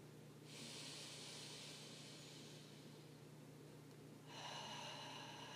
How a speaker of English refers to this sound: And taking a deep breath in through your nose and out through your mouth. Continue breathing in this way, inhaling in through your nose